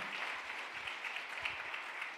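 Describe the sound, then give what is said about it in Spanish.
An audience applauding loudly, a dense, steady wash of many hands clapping at once, crackling brightly and sustained without pause for the whole stretch. “Dele un aplauso fuerte.”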